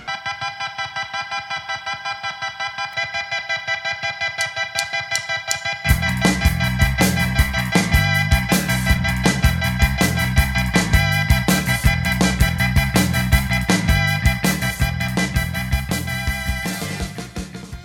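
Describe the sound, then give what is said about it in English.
Instrumental music selection, played for listeners to adjust volume, bass and treble controls, opens with a thin, bright repeating pattern, then a full band with deep bass and a steady driving beat enters about six seconds in and plays on loudly, with no voices. “As you're listening to the following music selections, adjust the volume, bass, and treble controls to suit your tastes.”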